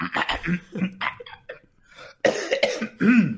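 A loud fit of coughing: a quick cluster of short hacking bursts, a brief pause, then two heavier, throaty coughs. No one speaks.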